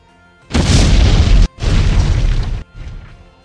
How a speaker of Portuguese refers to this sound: E é claro, vocês escutam a explosão.